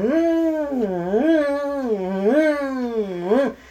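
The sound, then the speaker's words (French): A voice imitates the full-alert air raid siren heard in Berlin, one sustained wail that rises and falls in pitch about three times in steady waves, loud and unbroken, then cuts off. “Puis après, il avait la grande alerte.”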